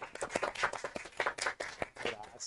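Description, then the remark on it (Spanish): A brief round of applause: quick, uneven hand claps overlapping in a dense, crackling patter that holds steady for a couple of seconds, with no clear talk over it. “Y un fuerte aplauso a mi querido amigo”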